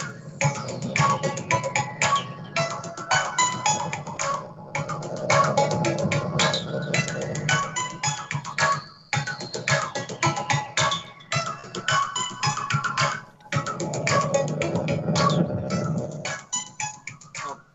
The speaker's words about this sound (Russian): Хорошо, да, отличная музыка, да, знакомая мелодия,